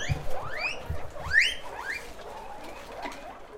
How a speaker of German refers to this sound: Darin quieken zufrieden mehr als 300 Meerschweinchen.